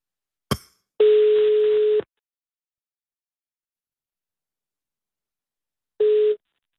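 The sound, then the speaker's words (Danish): A sharp click, then a telephone ringback tone on an outgoing call from Anders Lund Madsen of the Danish talk station Radio 24-7 in Copenhagen: a steady one-second buzzy beep, a long pause of silence, and the start of a second beep. It is clear, with no voices. “hvor er jeg glad for, at du ja. tager telefonen.”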